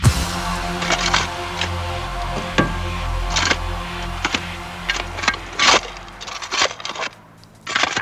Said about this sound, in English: And if you said digging a hole with a spade, you got that absolutely spot on.